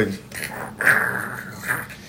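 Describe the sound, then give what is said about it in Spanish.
A person imitates a bear growling in a low, rough, drawn-out snarl, a couple of gruff bursts with no other talk. “El hace del oso. La misma persona que está hablando hace la dramatización.”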